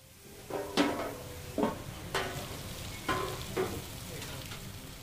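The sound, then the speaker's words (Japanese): Meat sizzles on a flame grill in the centre of a Negishi restaurant, with a steady crackling hiss, flaring into louder bursts every second or so. No one speaks. “いや燃えてますねもうネ根岸はやっぱりこの中央で網焼きしてるところが最高なんでまあ、座る席ってボックス席とか窓際とかいろいろあるんだけどやっぱ私はこの中央の網焼きの炎を感じられるファイヤーアリーナに絶対座る ここが一番いいです”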